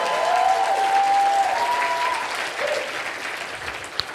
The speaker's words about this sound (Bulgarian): О, ако им ръкопляскате, направете го с класа.